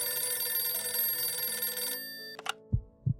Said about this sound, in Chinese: 桌上的电话响了，很急促的铃声